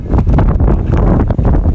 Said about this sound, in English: Uh, okay, well, I guess I'll turn off because it's windy here.